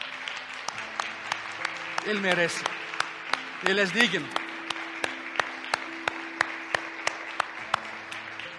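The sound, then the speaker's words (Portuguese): A standing church audience claps in steady unison as applause to God, sharp crisp beats at an even rhythm, while a man's voice speaks briefly over it twice. “E uma vez que estemos de pé, dê um aplauso a esse Rei de graça.”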